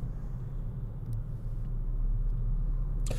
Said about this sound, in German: Links A40, da rauscht der Verkehr, rechts A3 Richtung Köln, da rauscht der Verkehr nur A3 Richtung Hannover.